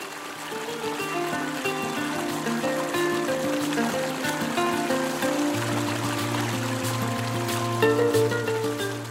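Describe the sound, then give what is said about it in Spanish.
Water runs steadily, like a stream flowing over stones, with a continuous rushing and trickling texture that stays fairly loud throughout, alongside low sustained tones. “Rodeada de pajarillos, escuchando el agua correr.”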